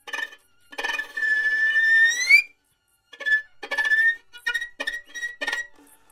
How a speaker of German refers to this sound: Also aus dem ersten einzelnen Grillenzirpen, das so klingt, wird dann plötzlich ein langer Ton.